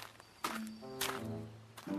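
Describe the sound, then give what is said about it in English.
Three heavy, thudding stomps land about half a second apart, loud, as Wu Jing stomps toward Ba Jie's voice, while sustained musical tones hum underneath between the steps. “Meanwhile, Wu Jing stomped toward Ba Jie's voice.”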